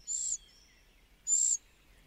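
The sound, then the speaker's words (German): Two thin, high-pitched begging calls from a young cuckoo opening its orange-red gape to beg food from its foster parents, each a short sibilant squeal about a second apart, clear over a quiet background. “Doch wenn der junge Kuckuck den orange-roten Rachen aufreißt und seine erbärmlichen Schreie ausstößt, können sie nicht anders.”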